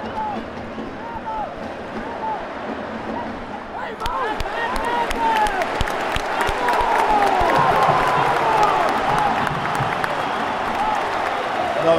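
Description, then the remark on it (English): A large football stadium crowd at an Inter match roars continuously as a player revs up the crowd before a corner, swelling noticeably partway through into louder cheering and clapping, with whistles and scattered shouts rising above the dense wash of noise. “Griech revving up the crowd.”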